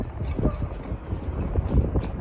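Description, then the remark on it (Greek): Strong wind from Storm Gérard roars steadily over a harbor in southern France, buffeting the microphone in a dense, rumbling rush with brief gusty swells and no voices. “Οι σφοδροί άνεμοι τη καταιγίδα Ζεράρ έχουν κάνει τι βάρκε στα λιμάνια τη Νότια Γαλλία να βγουν στη στεριά.”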